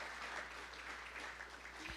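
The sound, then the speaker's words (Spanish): A church audience claps steadily in a dense, continuous wash of applause that holds at an even level throughout, with no words spoken over it. “Es mayor si sí, dale un aplauso.”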